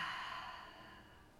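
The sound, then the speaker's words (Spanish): A long, deep exhale pushed out through the mouth after a deep inhale during a guided breathing exercise, a soft breathy rush that starts fairly strong and gradually fades over about a second and a half, quiet, with no talking. “Exhala, suelta con tu boca.”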